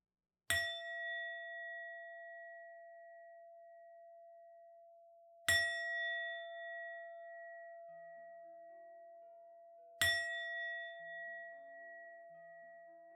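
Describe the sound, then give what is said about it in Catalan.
A meditation singing bowl is struck three times at steady intervals, each strike blooming into a clear, sustained metallic ring that slowly fades, heard alone without any voices. “present a la disposició asseguda, present a la respiració i al seu so, escolta el so del vol.”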